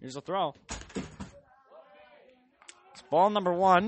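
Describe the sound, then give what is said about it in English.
A bucket being used as a chair topples over with a brief, hollow clattering bang, fairly loud, briefly interrupting a man's baseball play-by-play commentary, which resumes after a quiet pause. “It's a bucket fell over. Is that's what we're using for chairs in here, and I guess one of them just kind of fell.”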